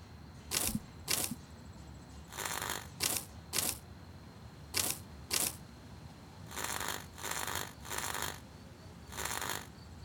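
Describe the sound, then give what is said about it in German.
Bursts of harsh electric crackling from a flickering lantern that looks like an ordinary oil lamp switch on and off in a mix of short snaps and longer buzzing stretches, almost Morse-like, over a faint steady hum with quiet gaps between. “Ihr seht, dass die Lampe, die ihr für eine ähm, normale ähm, Öllampe gehalten habt, irgendwie anf anfängt zu flackern und auch so ein elektrisches Geräusch von sich gibt.”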